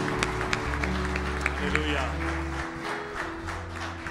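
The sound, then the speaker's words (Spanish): A standing crowd at an evening worship service claps together in sustained applause for the Lord, dense and fairly steady, with a low hum and murmuring voices running underneath. “Fuertes aplausos para el Señor, claro que sí.”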